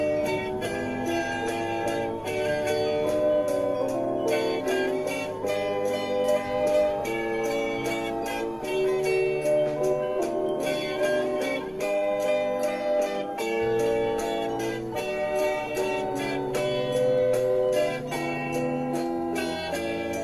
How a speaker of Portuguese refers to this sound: Essa aqui é eu vou tentar ficar mais calado para vocês ouvirem a música.